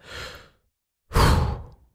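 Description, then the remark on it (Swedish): Two audible breaths demonstrating the Wim Hof breathing method: a softer airy inhale filling the lungs, lasting about half a second, a brief pause, then a louder, forceful exhale like a heavy sigh. “Om man vill göra den, då gör man 30 andetag, precis så som jag demonstrerar nu. Fullt in, släpp ut.”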